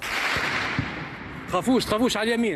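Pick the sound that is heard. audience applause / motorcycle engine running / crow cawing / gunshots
gunshots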